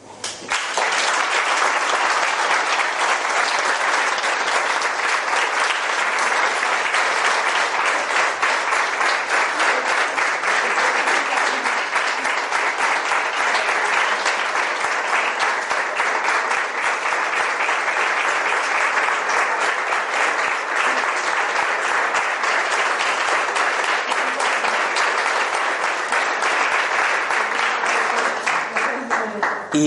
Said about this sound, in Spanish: ¿Sabéis cómo se llama eso? Pues vamos a aplaudir.